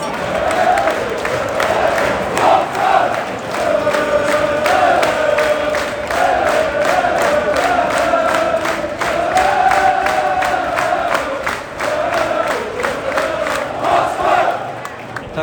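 A large football crowd chants in unison for the whole stretch, a loud, sustained sung melody carried by many voices, punctuated by steady rhythmic claps.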